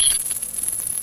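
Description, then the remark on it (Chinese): A five-dollar coin drops onto a table and rings with a bright, high metallic tone, rattling in quick fluttering pulses as it settles, then stops abruptly after about a second. No talking. “那如果它掉在地上或掉在桌上的时候啊，你会分得出来它到底是这时候这个是一块还是五块还是十块吗？”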